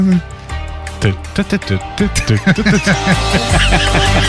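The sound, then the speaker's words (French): A voice imitates a four-stroke engine with a quick run of rhythmic, voiced putt-putt bursts, fairly loud, over a steady low background hum. “Fait, que, fait quel son, ça, un moteur quatre temps?”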